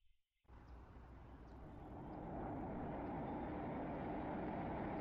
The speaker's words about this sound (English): All right, so um, we got another uh, fun uh, drone fly through. Wanted to bring this in. This one's of uh, Wrigley Field. This just dropped a couple days ago.